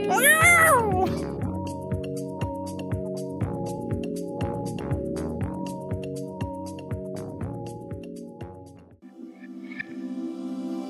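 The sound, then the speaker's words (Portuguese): In a music mashup, a shrill, wavering cat-like yowl opens over a rhythmic musical backing, followed by sustained whining, meow-like tones pulsing along with the beat, loud throughout. “Parece um monte de gato sendo espancado.”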